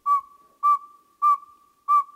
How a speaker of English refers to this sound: And here's a twitter call with a snap of the bill. Quite a variety for one of North America's smallest owls, the northern saw-whet.